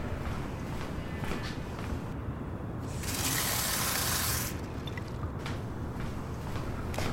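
Tap water runs briefly into a glass at a mulled-wine stall, a steady hiss of flow lasting about a second and a half amid faint background noise, moderately loud.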